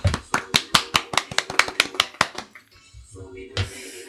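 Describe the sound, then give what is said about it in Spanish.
Steady, evenly spaced applause from a small group welcoming a celebrity guest: about a dozen sharp claps in a quick rhythm that stop after a couple of seconds, followed by a brief stretch of voices. “Tenemos al gran Pablo Venegas. Fuerte el aplauso.”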